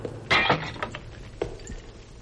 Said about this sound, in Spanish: Rompí el cuello de una botella que saqué de una larga hilera